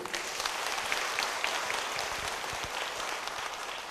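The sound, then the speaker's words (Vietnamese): Steady, dense applause from a crowd of over 350 registered attendees at a Buddhist talk, a continuous wash of many hands clapping at an even loudness for the whole stretch, with no voices heard over it. “trên 350 người đăng ký ngày hôm nay chứng tỏ quý vị đã hiểu rõ được triết lý vô ngã mà Đức Phật đã dạy hãy dâng câu trà vỗ tay để tán dương”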